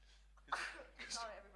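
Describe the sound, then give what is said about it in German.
A single quick sneeze bursts out, a sharp breathy blast followed by a short voiced tail, fairly faint with no talking around it. “Gesundheit.”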